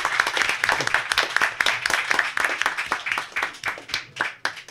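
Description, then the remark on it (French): Sustained applause from an audience, a dense patter of many hands clapping steadily for about five seconds at a fairly even, lively level with no voices standing out. “Ah oui, on peut l'applaudir, on peut l'applaudir, oui.”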